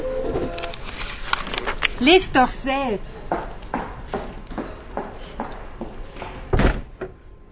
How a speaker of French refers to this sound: imprime le message qu'elle a reçu et sort en claquant la porte.